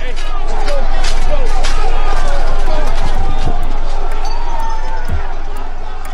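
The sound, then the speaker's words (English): A large, agitated crowd of Trump supporters storming the grounds of the U.S. Capitol in Washington, D.C. roars, a dense wash of overlapping shouts and voices with scuffling and running footsteps, loud and unbroken throughout. “to protest the election and hear a speech from the president storm the grounds of the U.S. Capitol.”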